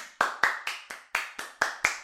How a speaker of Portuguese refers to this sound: Palmas para mim.